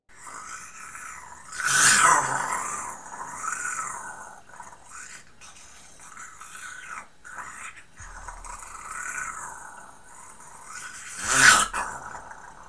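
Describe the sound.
A person imitating zombie growls: drawn-out, raspy, guttural moans that swell and fade, with louder bursts near the start and again near the end. Close and fairly loud, with no talking.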